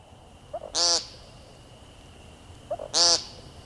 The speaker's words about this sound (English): western New York to the Croatan National Forest in North Carolina, and all the stopover habitats in between, we need to prioritize protecting our grasslands and young growth forests so the woodcock's powerful peents can be heard long into the future.